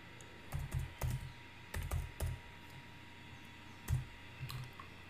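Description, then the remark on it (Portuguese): Keys clacking on a computer keyboard in short irregular bursts with brief pauses as someone types out a French sentence they heard, fairly quiet, no voices present. “Aí eu vou escrever como o que eu ouvi, tá?”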